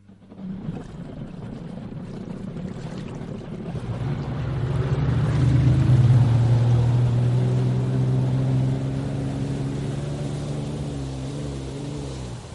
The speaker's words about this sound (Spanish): También tenemos por ahí, Sergio, pues una moto acuática, de estas que les divierten tanto a algunas personas.